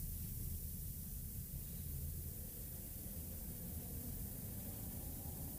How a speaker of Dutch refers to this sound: Je hoort de wind.